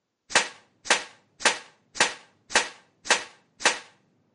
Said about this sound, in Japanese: はいでは早速、えー、このファミカセをハンマーで叩いてみましょう